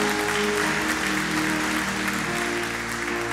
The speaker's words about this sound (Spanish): Dale un aplauso al Rey esta mañana, iglesia.